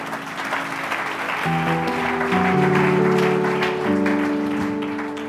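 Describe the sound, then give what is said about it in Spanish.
An audience claps steadily for the Lord in a dense, continuous wash of applause, while sustained instrumental chords rise underneath after the first second and a half and shift pitch a few times. “Damos un aplauso al Señor.”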